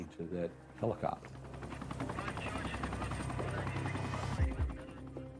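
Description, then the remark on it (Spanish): A helicopter's rotor blades chop steadily and loudly in a continuous rhythmic whir, with a few brief voice-like bursts at the start and near the end, the blades running during a police raid operation. “La decisión de entrar la tomó el comandante de la operación, bajo las palas en marcha del helicóptero.”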